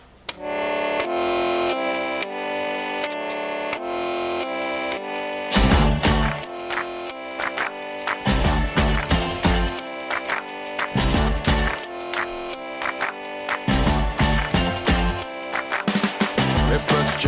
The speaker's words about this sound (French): Il y a bien longtemps qu'on n'a pas écouté de musique, alors je vous propose tout de suite d'écouter une musique et on se retrouve juste après.